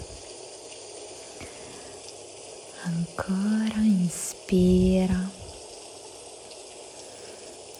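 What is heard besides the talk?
rain falling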